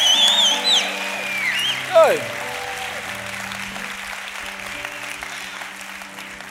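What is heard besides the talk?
audience clapping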